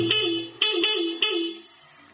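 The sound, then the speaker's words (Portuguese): A car horn honks three times in quick succession, loud, each blast a short sustained bleat, sounded on arriving when the person does not answer, with the last one trailing off into quieter street noise. “Primeiro você buzina. Olha o tutorial. Olha lá, buzina.”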